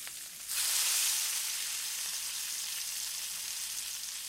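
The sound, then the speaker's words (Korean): Pork belly hits hot oil and sizzles loudly, a dense, steady crackling hiss that starts abruptly after a brief quiet moment and continues evenly, with no talking. “근데 제 생각에는 기름이 바로 튀는 소리가 나는 거 보니까 여러분 뭐 같다고 생각이 드십니까?”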